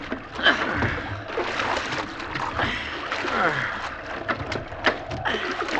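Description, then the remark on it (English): Water sloshes and splashes in a small boat at sea as men bail it, with irregular scooping splashes repeating over the whole stretch against a steady wash, and indistinct voices mixed underneath. “If this wind holds and the boat don't swamp, we can't do much else. Bail here, cook.”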